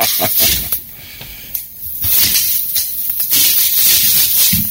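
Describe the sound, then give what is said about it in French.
An automatic push-button umbrella springs open: a loud, steady hissing rush of fabric runs through, broken by a few sharp snapping bursts, with no voices. “c'est un merveilleux parapluie, que j'ouvrais. Tu sais, le parapluie, là, tu pèses saint un piton, pouf!”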